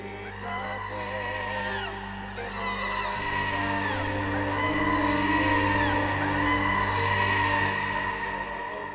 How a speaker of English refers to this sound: You gotta wait to hit the monkey noise.